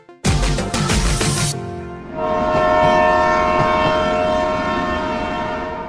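A loud train carriage clatters and rumbles along the rails for a moment, then a long, steady horn-like tone rings out over continued rolling noise. No one speaks.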